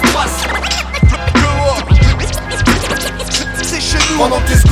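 Rapid turntable scratching by a DJ cuts back and forth over a loud hip hop beat with steady bass, the sharp scratches repeating in quick rhythmic bursts.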